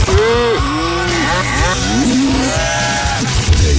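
A run of loud cow moos, several drawn-out lowing calls that bend up and down in pitch one after another, almost tune-like, over a steady low rumbling background.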